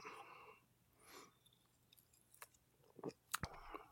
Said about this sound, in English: And uh, shit, I got a beer. Let me take a sip.